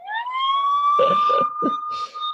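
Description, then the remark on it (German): A police siren wails as the police arrive: one loud, sustained tone with a bright harmonic edge that slowly climbs at the start and then holds steady, with a few short bursts of noise over it. “Ja, da kam die Polizei natürlich schneller als gehofft, sozusagen, als erwartet.”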